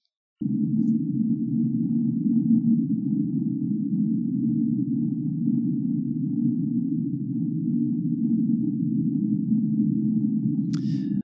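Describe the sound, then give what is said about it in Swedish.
A steady, low droning tone holds for about ten seconds without a break, with a faint higher thin line above it, then ends with a brief crackle. It is an unexplained underwater sound recorded in the ocean. “Det där låter ju som någon form av liksom nästan, eh, om, om man tänker sig ett, ett gigantiskt djur som bara... Ja. Någonstans i havet, som vrålar ut.”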